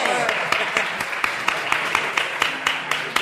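A crowd applauds steadily, a dense wash of hand claps with sharper individual claps popping out at an uneven rhythm throughout.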